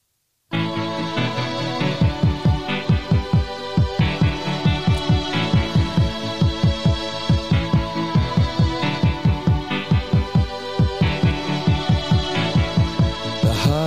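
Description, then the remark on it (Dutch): Instrumental intro of a rock song: sustained, layered chords over a steady, pulsing bass-drum beat, playing loudly and continuously with no singing yet. “Laten we eens een stukje luisteren voor de mensen die hem niet kennen.”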